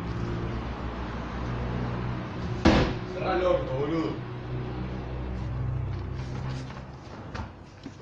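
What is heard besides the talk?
street traffic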